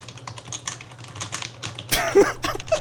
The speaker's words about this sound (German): Mach jetzt deine äh, Tastatur aus, Das regt mich richtig auf. Ich dachte die ganze Zeit, jemand anderes.